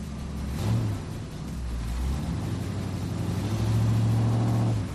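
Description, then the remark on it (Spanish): A car engine rumbles low, with a brief rev early on and a longer, steady revving surge near the end before easing off. No one speaks. “Es decir, que tú te montas en el coche, el motor se arranca solo y además va a ir al lugar que tú quieras.”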